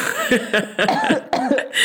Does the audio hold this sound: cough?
yes